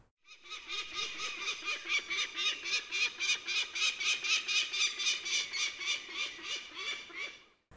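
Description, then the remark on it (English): A peregrine falcon's alarm call: a loud, harsh cackling series of rapid repeated notes, about three or four per second, running steadily for several seconds with no voices. “The call you will most often hear is the alarm call, especially if you are getting too close to an active nest.”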